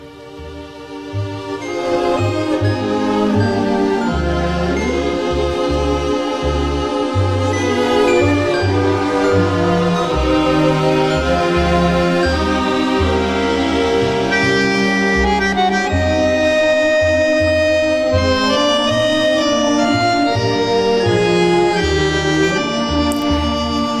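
An instrumental music piece plays steadily and fairly loud, with sustained melodic lines over a pulsing, rhythmic bass line, and no voices throughout.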